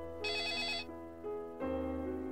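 A telephone bell rings at a police station with an incoming call, in a rapid trill, a bright metallic burst lasting about half a second, followed by a lower tonal hum and a louder sustained tone at the end. No one speaks.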